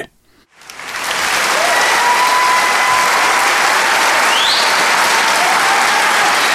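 Loud, dense applause from a concert audience after a violinist plays Ave Maria swells up within the first second after brief silence and stays intense and steady, a frenzied wash of many hands clapping with no voices standing out.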